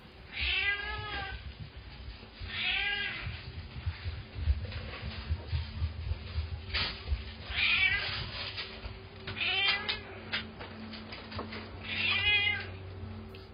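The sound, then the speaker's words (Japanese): Sora-chan, a hungry cat, meows insistently, about five loud, drawn-out calls spaced a couple of seconds apart, over a low steady background hum, with no one talking. “ただお腹が減っちゃうとまあ、こんな感じですごい訴えてくる時もあります。”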